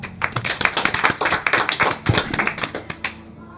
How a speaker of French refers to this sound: Je crois qu'on peut applaudir.